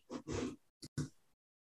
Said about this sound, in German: Moment kurz, ich muss mal ganz kurz weiter husten.